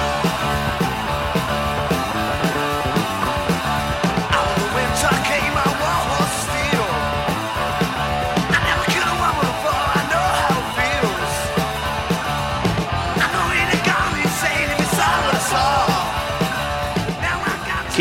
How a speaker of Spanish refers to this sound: ¿Qué, suena así de filoso? Eh? Esto me, me gusta, ¿eh? Cuéntele a la gente qué es. Vamos a contarle a la gente con los auriculares primero. Dale. Este, estamos escuchando, bueno, el primigenio …, ¿sí? Aquel del año 80,